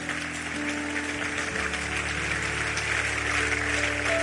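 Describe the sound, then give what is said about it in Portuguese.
Steady crowd applause for Jesus, a dense crackling wash of many clapping hands that holds at an even level, with sustained low keyboard chords droning underneath. “Pode aplaudir a ele aí.”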